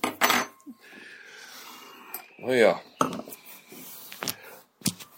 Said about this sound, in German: Zumindest öffnet es sich wie ein normales Bier.